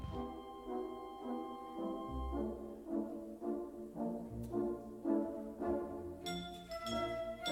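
A lively, parade-like orchestral theme plays, with bright sustained brass or woodwind tones over a steady, bouncing low bass pulse, moderately loud and with no voices.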